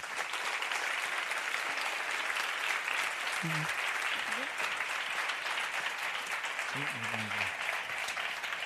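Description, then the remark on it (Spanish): Sustained audience applause for Ana R. Costa and Paco León, co-creators of the series Arde Madrid: a dense steady patter of many hands clapping at even loudness throughout, with a couple of brief faint voice-like tones rising above it. “Así que un aplauso, por favor, para los creadores, co-creadores de Arde Madrid, Ana R.”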